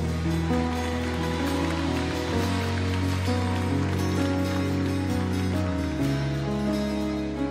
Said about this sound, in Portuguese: Dê um aplauso, igreja.